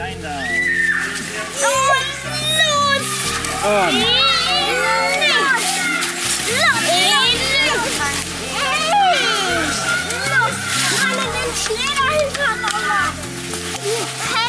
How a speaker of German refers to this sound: Es hat geschneit. Die Kinder spielen draußen im Garten. Sie formen einen riesigen großen Schneeball.